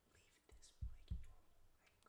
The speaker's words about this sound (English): I didn't whisper that fucking loud